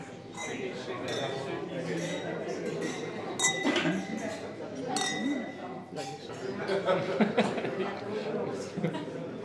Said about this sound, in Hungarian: Akkor kocincsunk már most a művész egészségére, és akkor már most egészségesebb lesz.